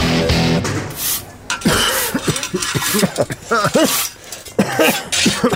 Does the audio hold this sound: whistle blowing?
no